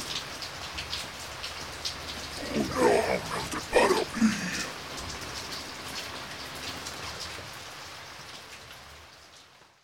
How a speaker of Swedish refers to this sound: Jag hörde inte vad det mumlade över regnets brus, nu fallandes ner som spön.